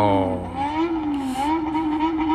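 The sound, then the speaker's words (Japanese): A single motorcycle engine of a bōsōzoku rider going back and forth across the Hirakata Bridge over the Yodo River roars steadily in the distance, its revving pitch rising and falling as it travels, loud and continuous throughout with no voices. “あ、さっきの暴走族が戻ってきた。”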